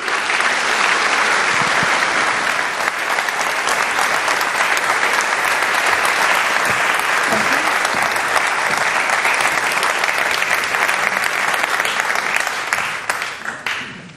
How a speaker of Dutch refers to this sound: En graag uw aandacht en applaus voor minister Dilan Jezilgus Segerius.